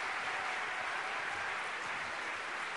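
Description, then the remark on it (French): A crowd applauds a couple from the Yvelines warmly, a dense, steady wash of many hands clapping at once that holds at an even level throughout, with no voices rising above it. “On peut les applaudir bien fort.”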